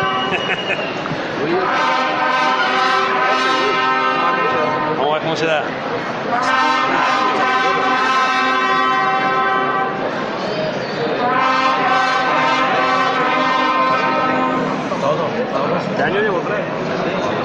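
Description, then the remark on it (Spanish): Ceremonial horn calls sound in three long, loud, brassy blasts, each held for several seconds with short breaks between, over a murmuring crowd, with a voice speaking briefly, played at the door of the camarín de Jesús in the dark early morning as a procession's guiding cross sets out. “toques interpretados en, en, la puerta del camarín de Jesús, ya, ya en ese patio delantero cuando la cruz de guía comienza a andar”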